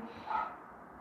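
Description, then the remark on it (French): One short dog bark sounds, fairly faint and muffled, over a low steady background with no one talking. “Ce chien m'agace tout à l'heure, bref.”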